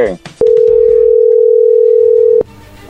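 A telephone ringing tone as a prank call is placed to a woman: one steady, mid-pitched electronic beep holds loudly for about two seconds, then cuts off, leaving faint background noise.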